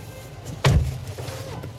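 A car door shuts once with a single heavy, low thud and a brief rattle as people get out of the car at the Pierre Hermé boutique on the Champs-Élysées, standing out over a steady low background rumble, with no one talking.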